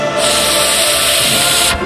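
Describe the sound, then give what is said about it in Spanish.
A dry ice fog machine, set off as the dance floor is opened, lets out a loud, steady hiss, a broad rush of noise that holds evenly for nearly two seconds before cutting off abruptly, with no voices over it. “Hielo seco, Rebeca.”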